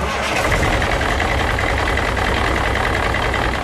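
A heavy truck engine idles steadily nearby, a continuous low rumble with a broad mechanical hum and no change in loudness throughout.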